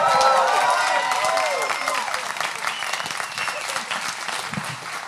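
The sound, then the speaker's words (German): A live audience in Osnabrück bursts into dense applause with whoops and cheering voices on top, strongest at the start and then settling into a steady, slightly quieter roar of clapping. “wir müssen mit gut abgehangen nach Osnabrück, weil hier, hier haut das Publikum einfach von sich eine Riesenstimmung raus, weißt du?”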